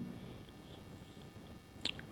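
Someone quietly drinking water: soft wet mouth sounds throughout, then a brief sharper gulp or click near the end, with no talking.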